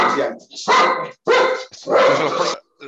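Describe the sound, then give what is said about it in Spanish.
Female dogs bark excitedly in a rapid string of four loud yelping bursts, with brief gaps between them. “a ver que tengo a mis perras excitadas.”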